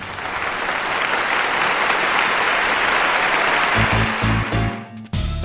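A large audience applauds actress Fernanda Montenegro, who plays Regina in the film O Outro Lado da Rua, clapping steadily in a dense, sustained wash, then the clapping gives way near the end to a few low, tonal sounds and a brief pause.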